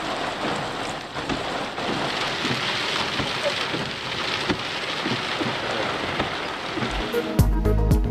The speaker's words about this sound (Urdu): کہیں بادل کہیں بارش کہیں دھوپ کراچی میں موسم کے کئی روپ سپر ہائی وے گلچن عدید گڈاب ملیر اور اطراف میں تیز ہواؤں کے ساتھ بارش